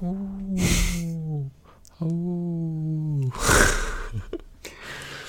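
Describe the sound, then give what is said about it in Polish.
A voice imitates the stock boxed cooler fan on a computer processor howling, even under light load: two long, wavering, falling hums, each cut through by a breathy whoosh, with a louder blast of breath near the end. “Nie wziąłem tak z boxa, tylko kupiłem sobie lepszy, bo tamten, o tak robił tak.”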